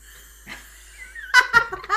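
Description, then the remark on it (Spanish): Sparkling water pours with a faint fizzy hiss, its tone rising as the glass fills, followed by a few bursts of breathy laughter toward the end. “Pero agüita en gas.”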